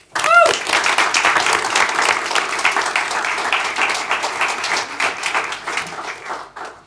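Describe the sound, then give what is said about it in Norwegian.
A crowd applauds steadily for several seconds to welcome a guest coming onto the stage, a dense wash of many hands clapping, with a brief cheer or whistle at the start before the clapping slowly thins out. “Gi henne en applaus.”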